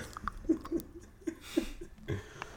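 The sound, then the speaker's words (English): Wet, irregular smacking and clicking of gum being chewed right up against the microphone, several soft mouth noises spread across a couple of seconds with light breathing between them. “So so like, can be chewing gum. It's gonna pick it up, fam.”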